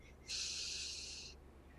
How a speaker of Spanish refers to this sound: Es que mira, nomás yo siempre invito a las personas, hagan una pequeña respiración